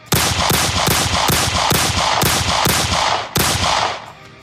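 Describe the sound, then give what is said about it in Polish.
A rapid string of eight loud gunshots, a whole magazine emptied at a person, fired in quick, steady succession, each crack blending into the next, with a slightly longer pause before the final shot and a short echoing tail. “Krzyknął, zanosząc się płaczem i oddał w moim kierunku osiem strzałów.”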